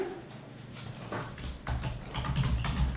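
Rapid clicking of keys on a computer keyboard, a dense run of quick taps at moderate level over a low background hum, with no voices.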